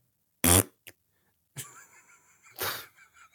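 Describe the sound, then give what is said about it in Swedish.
A loud fart blast, then a tiny puff, followed by a longer squeaky, tonal fart that swells into a final raspy burst. No one speaks. “Tänk att hela det här avsnittet har byggt upp till ett enkelt pruttskämt.”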